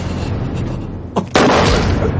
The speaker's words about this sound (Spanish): El capitán dispara.